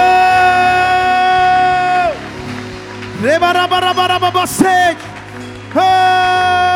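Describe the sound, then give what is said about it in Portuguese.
A church audience gives a shout of victory and applauds the Lord in a broad, steady roar, while a single voice cries out in long, sustained, wavering notes over the crowd, pausing twice before rising again. “Dê um brado de vitória e aplauda ao Senhor.”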